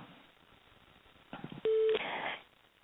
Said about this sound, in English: that's my telephone beeping and apparently I'm calling myself.